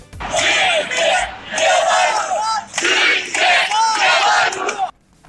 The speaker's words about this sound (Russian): Ну, это крики, которые были «Живе Беларусь», э, знаменитый крик, э, тот самый собравшихся.